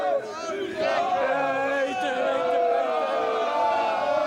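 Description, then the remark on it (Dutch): A crowd of Feyenoord football supporters on the Stadhuisplein cheers and chants continuously, many voices blending into a loud, sustained roar with rising and falling sung tones throughout. “Nou, zo achter mij te horen zit dat geloof ik wel goed.”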